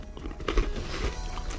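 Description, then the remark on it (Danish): Crunching of a small, hard pebernød spice cookie, flavoured with cinnamon and cardamom, being eaten by a person: a couple of crisp bites followed by steady chewing, heard alone with no talking. “Det er lyden af mig, der spiser en pebernød.”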